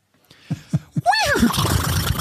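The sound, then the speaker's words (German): A person imitates a horse whinny: three short breathy puffs, then a loud, quavering, high-pitched neigh that wobbles downward and trails off into rough, breathy noise. “Dass ich sehr gut Einer. ein Pferd nachmachen kann.”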